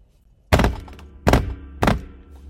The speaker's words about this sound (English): That's me banging my desk for those of you listening on Spotify.